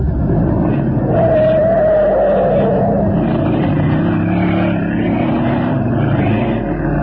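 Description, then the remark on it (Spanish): A loud engine roars steadily for about seven seconds, a dense low rumble with a brief whining rise early on, as a small car accelerates hard with the accelerator pressed to the floor; no voices. “Talimán oprimió el acelerador hasta el fondo y una sonrisa de triunfo iluminó su rostro de asombrosa belleza varonil.”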